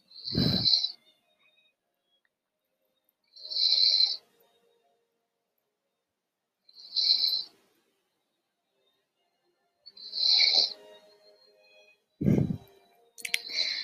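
Slow, steady breathing of someone asleep, close up, with soft snoring rasps and airy hisses repeating about every three seconds. No one speaks.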